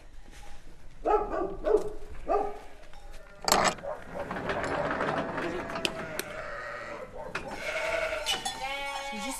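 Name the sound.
dogs barking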